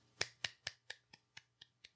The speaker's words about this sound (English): And she claps.